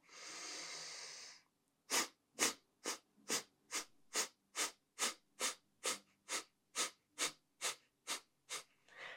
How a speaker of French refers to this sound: Donc, je vous fais un exemple de Kapalabhati. On inspire profondément. Et on va expirer par petites secousses en venant ramener le nombril vers la colonne.